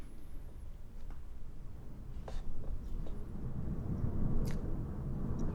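A deep, rolling rumble of thunder swells gradually over several seconds, with a few faint crackles above the low roar and no voices.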